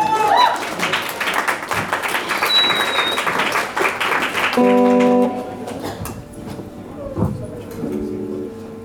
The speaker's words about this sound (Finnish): Annetaan isot aplodit hänelle.